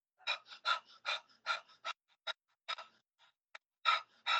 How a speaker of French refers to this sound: Il y a plusieurs manières de pratiquer Kapalabhati, mais une respiration que tu peux faire par la bouche pour t'énergiser et ça revient à prendre euh, une tasse de café, ça va être celle-là.